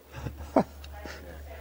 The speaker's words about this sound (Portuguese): A cachorrada aqui também tá a milhão, viu? Tá solta.